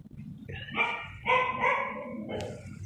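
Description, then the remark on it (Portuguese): The speaker's female dog barks angrily in a few drawn-out, shrill, strained bursts, closely following one another at moderate volume over a low rumbling background. “meu cachorro tá muito bravo, é uma das coisas que eu sinto.”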